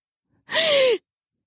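A single sharp, breathy gasp, fairly loud, lasting about half a second with a faint voiced edge that slides down in pitch, then silence.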